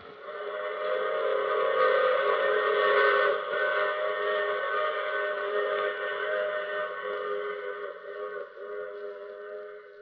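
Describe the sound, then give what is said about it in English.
A train's chord-like whistle sounds loudly and continuously for about ten seconds, with a faint rumble underneath, easing slightly toward the end. Nobody speaks. “I take this same train every week at this same time.”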